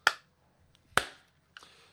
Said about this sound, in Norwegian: Én klapp fra HyperX